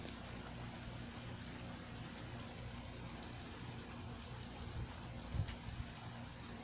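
Rain falls steadily with a soft, continuous hiss, fairly faint and even throughout, over a low background hum, with one brief thump partway through.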